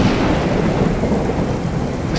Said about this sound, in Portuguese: As nuvens que já eram pesadas ficam ainda mais negras. A chuva cai de forma ainda mais torrencial. Um relâmpago cai muito perto da ilha. Logo em seguida, um trovão ensurdecedor e o próximo relâmpago cai na própria ilha.